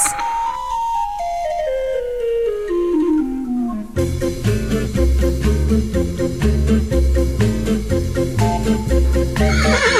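A loud, drawn-out horse neigh slides downward in pitch over the first few seconds, then gives way to bouncy music with a steady, thumping beat.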